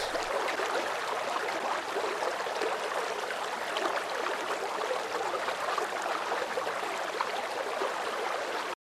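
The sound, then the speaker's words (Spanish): A river rushes steadily with a dense, constant hiss of flowing water. It is loud, with no pauses and no voices, for the whole stretch. “Bueno, ahora vamos a escuchar el río, todos muy atentos.”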